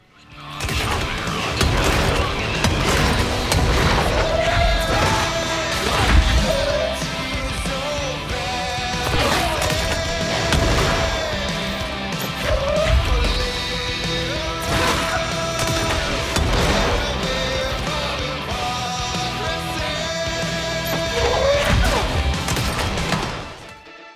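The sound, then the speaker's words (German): Video game explosions go off one after another in battle amid a dense, continuous roar of crashing and crumbling debris, as particle effects break apart and collapse; loud, with no talking. “und alles explodiert und Partikeleffekte überall drumherum sind, die teilweise auch physikalisch korrekt zerbrechen und in sich zusammenfallen.”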